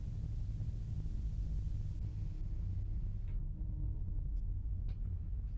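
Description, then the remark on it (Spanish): A deep, heavy rumble of distant giant footsteps of ancient beings slowly advancing in step, as if marching, rolls on steadily and loudly throughout, dominated by low booming tones, with no voices present. “y empiezas a darte cuenta que son pisadas. Pisadas milenarias de seres que poco a poco avanzan.”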